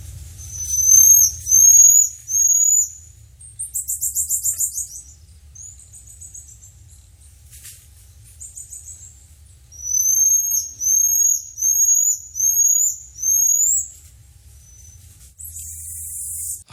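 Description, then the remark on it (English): Very high-pitched, thin chirping calls of a pygmy marmoset from northwestern South America repeat in short bursts, rising whistles and rapid trills, some grouped in series of four or five, over a faint low rumble with no talking. “On the animal cuteness scale, from 1 to 10, the pygmy marmoset from northwestern South America ranks as a 12.”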